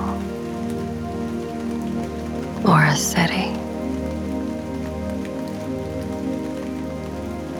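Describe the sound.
Steady rain patters on a hard surface in a constant, even hiss throughout, with a brief spoken phrase rising over it near the start.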